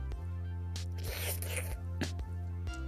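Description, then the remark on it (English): A loud, wet slurping noise surges for about half a second, followed by a couple of shorter sucking bursts, all over a steady low hum. “A big slurping sound.”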